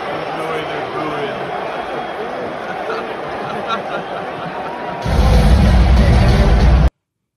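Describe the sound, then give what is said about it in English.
A large stadium crowd boos a tribute to Queen Elizabeth II in a steady, sustained roar, and the noise swells into a louder, rumbling wall of sound for the final couple of seconds before cutting off. “You can actually hear the crowd booing this tribute.”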